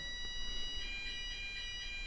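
A fire alarm sounds during a Monday test, its high electronic tone pulsing steadily and fairly faintly with no one speaking.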